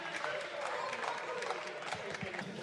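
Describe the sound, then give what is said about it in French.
Sustained applause fills a French parliament chamber during a debate on abolishing bullfighting, many hands clapping in a dense, steady wash with a murmur of voices underneath, loud throughout the short stretch. “Applaudissez, soyez fiers de vous.”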